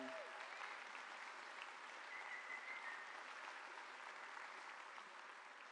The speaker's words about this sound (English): And, and again, they're saying, hey, don't mention names, but can I just have you right now clap for nameless men in our church